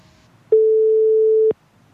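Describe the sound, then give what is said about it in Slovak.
A telephone ringing tone: one steady, fairly low-pitched electronic beep lasting about a second, loud and clean against near silence, with no talking. “A čo zvoní?”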